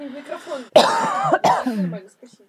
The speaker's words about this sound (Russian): Я буду кашлять иногда